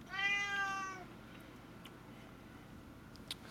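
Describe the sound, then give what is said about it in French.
A single drawn-out meow from an unhappy pet cat, slightly whiny and complaining, heard at the very start, followed by quiet background noise with a couple of faint clicks. “J'ai un chat qui est pas content, Excusez-moi.”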